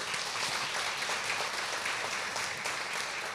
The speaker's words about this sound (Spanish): Amén. Un aplauso al Señor, claro que sí.